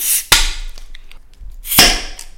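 A beer bottle being opened: two sharp cracks of the cap about one and a half seconds apart, each followed by a brief airy hiss, with no talking.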